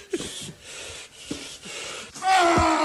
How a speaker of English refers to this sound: So as you can hear, the breathing has gone up oh, a level. Oh, God and he's really, really getting into it now. And then finally, the snake is brushed out of the sliding door and into the back garden.